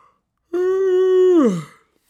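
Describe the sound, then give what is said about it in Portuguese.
A single voiced yawn, fairly loud, holding a steady open tone for about a second before sliding down in pitch into a breathy exhale, with no talking around it. “Não estou com sono por causa da pergunta, estou com sono, nem estou com sono, foi um bocejo.”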